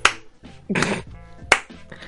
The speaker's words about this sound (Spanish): Estoy aplaudiendo.